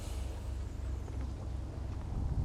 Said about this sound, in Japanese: ちょうど今はね漁船が近くを通ってるんでゴロゴロゴロっていうね、えー、エンジンの音が聞こえています